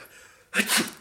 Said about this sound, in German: Gesundheit.